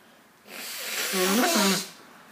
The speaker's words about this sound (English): i'm going to sneeze and it's a very good sneeze. Bless me.